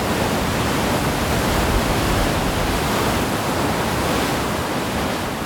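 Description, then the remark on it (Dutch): A loud, steady roar of rushing water, dense and unbroken, as just over 300 cubic metres of water per second pours through a weir's sluice gate opened one metre, 7 metres below the surface, filling the whole recording with churning noise and no voices. “7 meter onder het wateroppervlak, vliegt er iets meer dan 300 kubieke meter water per seconde door de schuif. Het buldert, schuimt, woelt en stuift.”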